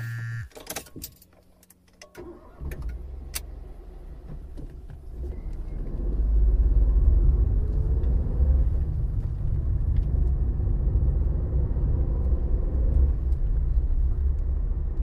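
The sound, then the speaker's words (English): A car door thuds shut and an engine starts, then a steady low engine rumble and road noise build as a boss drives the car off on a long drive, continuous. “you hitch a ride with your superior, realizing it will be a long drive”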